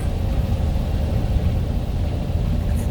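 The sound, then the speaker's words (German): Bob's VW Beetle arrives at the Hotel Pacific Pearl in the afternoon and parks; its engine runs with a steady, low, throaty rumble at an even moderate loudness for the whole stretch, with no voices over it. “Als sie mit Bobs Käfer am nächsten Nachmittag dort eintrafen, bemerkte es Justus schon von weitem.”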